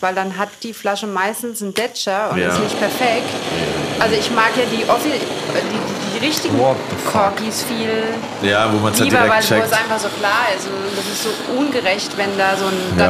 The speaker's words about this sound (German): was ihr hier gerade hört, ist, äh, Willi hat den äh, Schweißbrenner hier ähm, angeworfen und erhitzt die Portweinzange